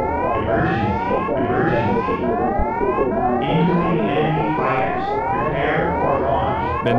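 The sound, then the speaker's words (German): A retro Super Nintendo video game alarm siren wails in rapid rising sweeps, repeating about once a second, loud and continuous over a dense rushing noise of an accelerating spaceship flying through a tunnel, with no talking. “hattest, die du im Emulator einstellen konntest, hast du nichts verstanden, weil da kommt ja Emergency, Emergency, mhm. Incoming Enemy Fighters, Prepare for Launch.”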